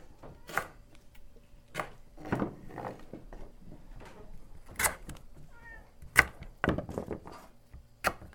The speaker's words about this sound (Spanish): Agarramos la tabla y lo que hacemos es le cortamos un pedacito de cada lado para que la poquita sal que le pongas este, le entre a, la inflorescencia adentro.